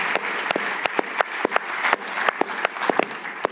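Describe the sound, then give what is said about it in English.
A steady round of applause from a small audience at a meeting, given in thanks for Timothy John Wallace Spalding; dense overlapping claps with a few sharper individual hand claps standing out, sustained evenly at moderate loudness. “So, if you could just have a, a round of applause and thanks for Timothy John Wallace Spalding.”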